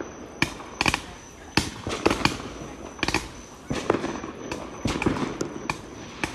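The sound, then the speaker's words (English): Fireworks burst in a rapid, irregular series of sharp cracks and pops, some doubled or clustered, ringing out fairly loudly over a steady background rumble with no talking. “like fireworks in the night.”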